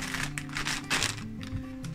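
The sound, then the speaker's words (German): A plastic potato chip bag crinkles and rustles in repeated crackly bursts across two seconds, moderately loud, with a faint low steady hum underneath and no one speaking. “Ich habe euch hier auch eine Tüte mitgebracht.”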